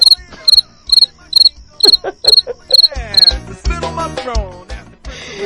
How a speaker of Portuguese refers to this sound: Não, tira! Tira a risada e põe o grilo!